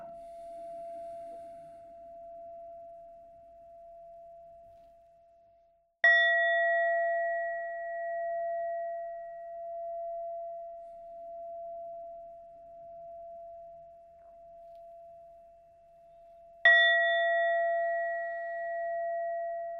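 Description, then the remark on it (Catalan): A singing bowl is struck twice, about ten seconds apart, each strike giving a bright onset and a long, steady, shimmering hum that sustains and gently pulses between strikes. No voices. “Ara escolta tres vegades el vol i realitza cada vegada una respiració calmada, lenta i tranquil·la.”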